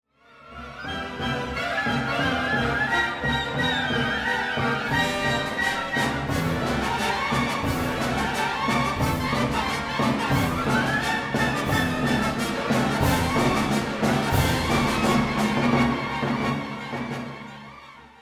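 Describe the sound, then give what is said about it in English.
Dense orchestral music plays steadily and loudly, with driving, sharply accented rhythms and a rigid, march-like precision that gives it a stern, martial character, fading in and out at the edges. “They're playing music that's decidedly militaristic, precise, and uncompromising, and it's them who are knocking at the door.”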